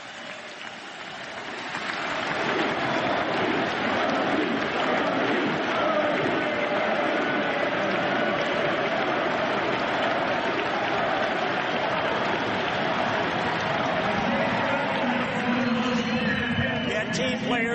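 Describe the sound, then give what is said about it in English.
A large stadium crowd at a White Sox ceremony retiring number 56 breaks into sustained applause. It swells within the first two seconds and holds steady and loud, a dense wash of clapping and cheering. “Without any further ado, well, maybe a little, just for the applause.”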